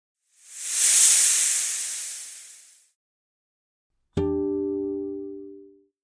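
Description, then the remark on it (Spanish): A snake hisses in one long, airy breath that swells and then fades out. After a short pause, a bright ringing tone strikes and slowly dies away. “La Cuyancua es parte cerdo y parte serpiente.”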